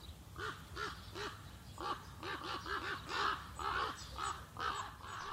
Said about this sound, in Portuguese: Eu fiquei ouvindo um jardim da Dinamarca.